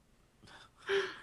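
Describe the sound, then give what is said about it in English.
A single sneeze: a quick breathy intake followed by a sharp, louder voiced burst that cuts off abruptly, with no talking around it. “oh, bless you”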